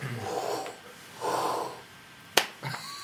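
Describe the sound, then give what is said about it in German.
A voice imitates microphone hiss with two breathy, drawn-out shushing exhales, followed by a sharp, snort-like puff and a short final burst, moderately quiet. “Ja, nee, der Rausch ist so.”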